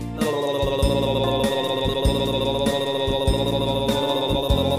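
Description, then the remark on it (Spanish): A sustained, buzzing tongue trill imitates a helicopter's whirring rotor, fluttering rapidly and steadily for several seconds with a few brief breaks, loud. “Tengo una lengua muy revoltosa con la que juego a cualquier cosa. En helicóptero sale a volar, si yo la dejo revolotear.”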